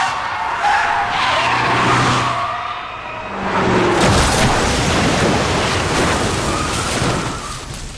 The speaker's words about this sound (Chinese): 轰隆一声巨响，汽车当场报销。